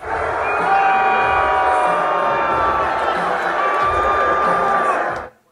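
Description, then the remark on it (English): A large arena crowd at a UFC event at Madison Square Garden in New York roars continuously, a loud mix of booing and scattered cheers and whistles for President Trump that holds steady for several seconds before cutting off abruptly. “Loud boos and some cheers for the president.”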